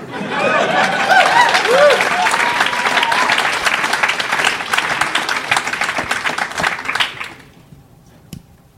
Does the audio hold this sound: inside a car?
no